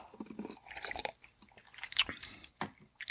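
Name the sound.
drinking water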